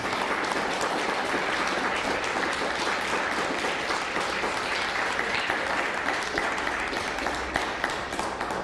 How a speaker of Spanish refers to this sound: un fuerte aplauso también a Costa Rica, ¿por qué no?